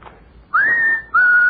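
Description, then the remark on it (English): A person practicing bird calls whistles two clear, sustained notes in a row, the first rising then holding steady, the second shorter, mimicking a bird's call; loud with no talking. “I'm practicing bird calls.”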